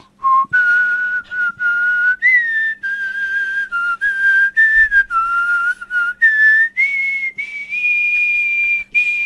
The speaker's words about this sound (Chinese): 然后我爸就跟我说一句话， 嗯， 儿子，爸教你吹口哨吧。你知道， 不用乐器，特省劲。